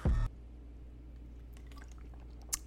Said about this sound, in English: Um, actually, I got this Gatorade right here. Let me take a sip of this real quick, man. You already know I got to take my little sip before I go.